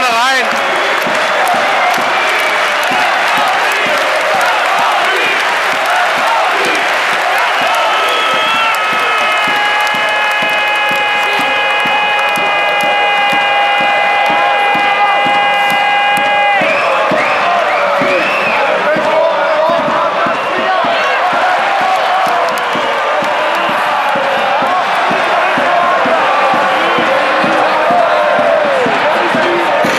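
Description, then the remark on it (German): A loud football stadium crowd at a St. Pauli match in the 92nd minute roars and chants continuously as a player urges the crowd on: a dense wall of massed voices, with a steady sustained tone like a horn or whistle rising above the noise for several seconds midway. “Und er fordert das Publikum nochmal auf.”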